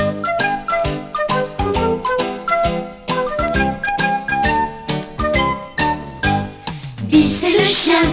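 An upbeat instrumental intro of a 1989 French pop song plays loud, with punchy rhythmic chords on a steady beat, swelling into a bright cymbal-washed flourish near the end. No voices.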